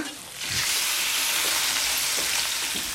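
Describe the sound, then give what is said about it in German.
Steady, loud sizzling and crackling of food cooking in a kitchen as a head of lettuce is scalded and blanched and a soup bubbles, with a dense hiss rising after a brief quieter start and faint low bubbling pops scattered throughout. “Ein Salatkopf wird gebrüht und blanchiert, eine Suppe brodelt.”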